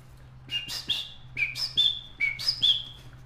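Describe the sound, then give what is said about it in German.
A person whistles an imitation of a three-waved golden parakeet call: three quick pairs of bright, sharp chirps with short pauses between, clear over a faint low hum. “Und ich äh, äh, äh zwitschere jetzt den dreiwelligen Goldsittich vor.”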